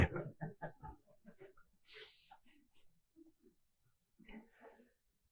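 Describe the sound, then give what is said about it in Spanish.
A dog makes a series of short whines and snuffling noises in a room, coming in uneven bursts with a brief sneeze-like huff in the middle. “Saca al perro, por favor.”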